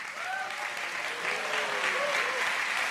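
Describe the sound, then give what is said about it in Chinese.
A church audience claps their hands to give glory to the Lord in sustained, dense applause, steady and loud throughout, with faint voices and a few cheers rising over the clapping. “大声一点，拍手把荣耀归给主。”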